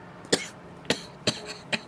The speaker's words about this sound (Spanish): Oiga, ¿hace cuánto está con eso? Ay, no vaya a empezar, ¿sí? Es una tos cualquiera. Usted sabe que a mí cada rato me da gripa.